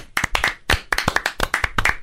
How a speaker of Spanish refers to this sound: Un aplauso. Bravo.